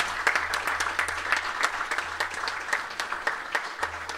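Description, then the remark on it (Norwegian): Steady applause from a crowd for author Tor Gåtås, many hands clapping in a dense, continuous patter with sharp individual claps standing out, moderately loud throughout. “Stor applaus til Tor Gåtås.”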